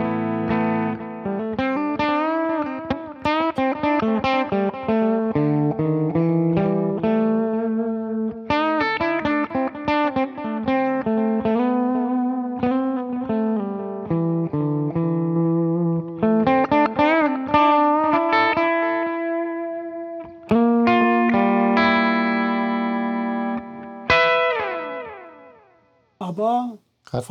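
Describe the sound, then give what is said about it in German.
A distorted electric guitar plays through an amp with the mids turned up, giving a mid-heavy tone, sustained riffs and chords ringing out continuously and loudly for the whole stretch, ending in a few sliding, choppy notes. “Dann äh, spielen wir und ich drehe mal die Mitten hoch.”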